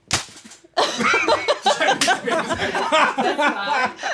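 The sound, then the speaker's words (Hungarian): A sharp slap on the face cracks out at the start, followed by a burst of loud laughter and excited voices, with another crisp smack partway through, on the Balázsost show. “Figyelj, én így reagálnék egy pofonra, színész lennék.”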